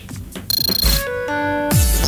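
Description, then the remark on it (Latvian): A phone ringtone plays loudly, a rapid pulsing electronic trill giving way to steady stepped synth tones, then a brighter swell at the end. No one speaks. “Uzliec zvaniņš skaļi, vienkārši lasi bez skaņas.”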